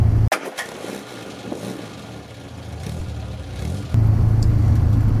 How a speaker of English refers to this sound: today I'm driving back from dropping my partner off at work for those of you who don't know, is my daily driver.